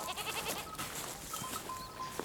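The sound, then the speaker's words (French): Six goats bleat after milking on a farm in a village by the Seille river on a Sunday morning, their wavering calls overlapping over a steady wash of outdoor farm noise, with a short sharp bleat near the end; no one speaks. “éleveuse de chèvres et conseillère municipale de l'opposition”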